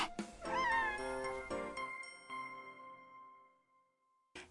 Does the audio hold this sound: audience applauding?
no